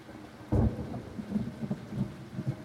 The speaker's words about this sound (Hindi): बारिश की आवाज़ अब भी मेरे कानों में आती रही कभी कभी